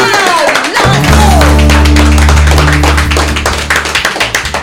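A burst of lively applause, many hands clapping rapidly and steadily over a sustained low musical tone that swells in after the first second.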